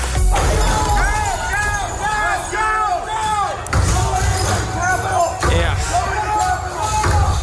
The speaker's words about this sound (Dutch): Je hoort hier de brekende ramen van het kapitool.